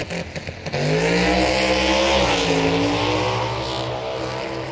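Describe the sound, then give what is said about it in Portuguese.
A race car engine roars up to a sustained high-revving whine after a few sharp bursts, loud, with rising and falling pitch like a car tearing past at speed. “Um carro bom, um carro veloz, como a filme, não lembro do nome no português, mas o filme Furiosos e Velozes, algo assim, que é muito popular, que tem carro que tá legal, que tá ligado com coisa extra, que pode correr, que pode fazer coisas incríveis.”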